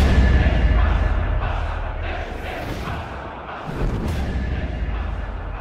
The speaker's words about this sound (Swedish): På bioduken utspelar sig en actionscen. Skott avlossas och musiken stegrar.